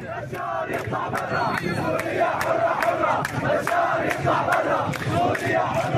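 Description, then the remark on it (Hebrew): A large crowd of protesters against the Assad regime chants loudly and continuously in a square in Sweida, in the Druze mountain region of southern Syria, in the morning, many voices shouting in unison with sharp rhythmic bursts. “מוקד המחאות, כפי שציינת, הוא מחוז סווידא, הר הדרוזים בדרום המדינה, היכן שכבר ראינו בשנים האחרונות וגם בחודשים האחרונים, מחאות נגד המשטר גם כן הקשורות למצב הכלכלי הקשה, אבל לא רק, כך זה נשמע שם הבוקר באחת הכיכרות בסווידא, הר הדרוזים.”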